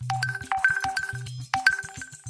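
Repeated electronic phone notification chimes from a group chat fire off in quick succession on a calm night in the small town of Bacurau, bright synthetic tones stacking up over a low buzzing pulse, loud, with no one talking.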